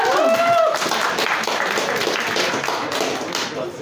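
An audience breaks into loud, sustained applause in support of a speaker, dense clapping that fills the whole few seconds without pause, with a brief whistle-like tone at the very start.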